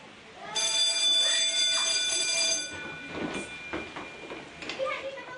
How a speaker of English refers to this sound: When the bell rang at Christchurch's Chisnallwood Intermediate at the end of last term, the three women who cleaned the school thought they'd be back to work after the holidays.